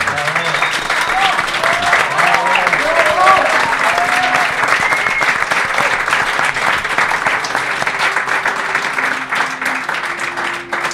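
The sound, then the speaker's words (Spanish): Sustained audience applause fills the whole stretch, a dense, steady wash of clapping with a few cheers and voices rising over it, tapering slightly near the end. “Así que os pido de verdad un aplauso”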